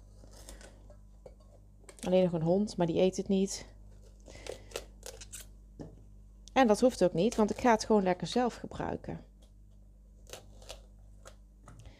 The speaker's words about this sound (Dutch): Ik snijd dus nu de bladeren van de bloemkool af. Moet je natuurlijk wel een bloemkool hebben die ehm, lekker vers is, waarvan die bladeren nog lekker stevig zijn.